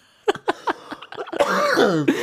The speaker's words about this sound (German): ich wollte den Huster unterdrücken, hab's so schlimmer gemacht.